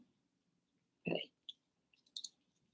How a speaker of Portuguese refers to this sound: Então, eu estou com o meu fone aqui que eu não estou usando. Eu enrolo ele bonitinho. E uso isso aqui como um porta-cabos, né? Até botei largo, de, botei apertadinho demais. Mas ele entra aqui dentro. E eu fecho o botãozinho